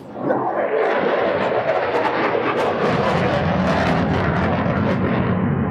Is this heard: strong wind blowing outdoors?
no